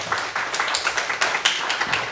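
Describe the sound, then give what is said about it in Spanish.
Sustained applause from a crowd for the Virgin Mary, many hands clapping in a dense, steady patter with frequent sharp individual claps standing out, fairly loud throughout with no voices over it. “Fuerte el aplauso a nuestra Madre Santísima.”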